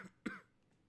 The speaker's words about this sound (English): You're gonna hear that a lot, me cursing. Not cursing, coughing.